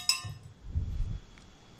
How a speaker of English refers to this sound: Sorry, uh, that was an innuendo bell. Um, I forgot to tell you about it before before we started.